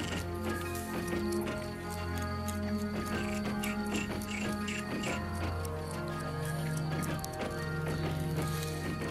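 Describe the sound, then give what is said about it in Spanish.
A dense, unbroken chorus of frogs croaking, many overlapping calls layered together at a steady, fairly loud level, with no voices. “Miren las ranas ahí.”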